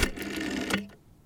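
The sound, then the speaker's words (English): A rotary phone dial whirs and ratchets back with a quick, rapid string of mechanical clicks lasting under a second while a phone number is dialed, then cuts off into quiet. No one speaks. “Time to just plug it into my rotary phone.”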